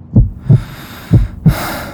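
Two deep, low heartbeats, each a thudding lub-dub pair, pulse at a slow steady pace with no voices; a soft airy hiss swells up behind the second beat.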